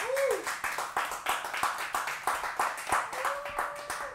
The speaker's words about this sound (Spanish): Vamos, a dar un aplauso fuerte a Jesús.